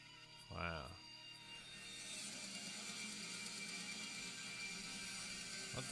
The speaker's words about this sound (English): sounds like a goddamn mess. This is not a good song backwards. I should have put this one last. Yeah. Cause it does sound like just noise.